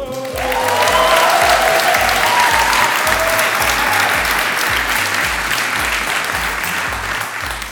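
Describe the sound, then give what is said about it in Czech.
A live theatre audience at the X10 theatre bursts into sustained applause with some cheering and whistles, loud, holding steady for several seconds before starting to taper off. “Za prvé, protože poprvé nahráváme před živým publikem v divadle X10. Ahoj živé publikum!”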